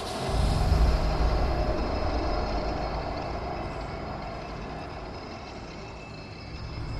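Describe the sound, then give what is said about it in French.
A deep, continuous rumble of a metro train passing underground beneath a basement, strongest at the start and slowly fading, with a steady mechanical hum and faint high whine, no voices. “quand on est dans ce sous-sol, on entend, peut-être l'entendrez-vous tout à l'heure, le bruit du métro. Le métro qui passe en dessous de soi.”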